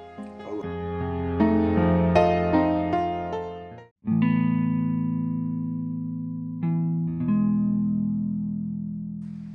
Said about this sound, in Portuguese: Essa musiquinha de início, mano. Você é louco.